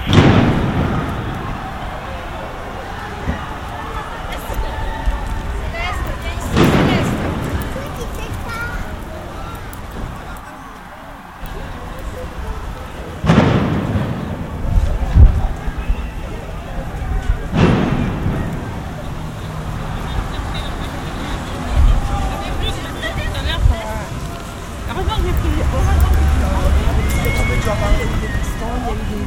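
Tumultuous street clash between rioters and CRS riot police during a demonstration, with a crowd roaring and shouting throughout, punctuated by three loud, sharp blasts and heavy thuds spaced several seconds apart.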